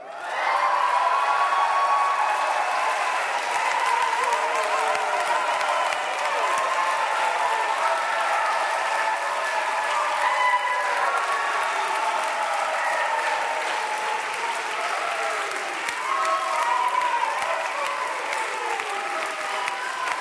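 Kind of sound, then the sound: crowd, audience applauding and cheering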